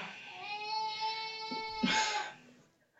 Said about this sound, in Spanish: ahí está llorando el chiquitito, el chiquitito, sé que tu esposo te está ayudando.